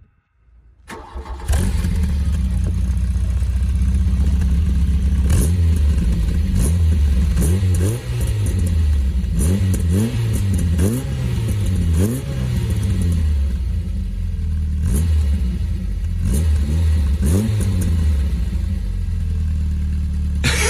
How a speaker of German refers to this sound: Wir gucken uns mit großen Augen an. Rotzig, würde ich sagen. Ja, seit wann klingen Vierzylinder eigentlich schlecht?